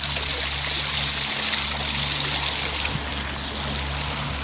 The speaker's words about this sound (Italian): Oggi mi trovo a Fordongianus, 271 comune del mio viaggio e mi trovo in questo momento a fianco a una fontana. Vi faccio sentire un po' il rumore